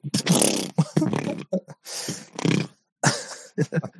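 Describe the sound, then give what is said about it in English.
Someone blows loud vocal fart noises, a series of wet sputtering raspberries in four main bursts with short popping bits and brief pauses between them. “That's a fart noise.”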